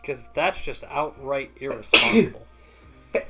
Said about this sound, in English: had to hit the record button when I'm sneezing. Yeah, well, I hit the record button before you sneezed.